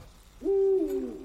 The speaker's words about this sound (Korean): 울음소리가 부엉이잖아. 여긴 도시야. 부엉이는 아마존에는 사는 거라고.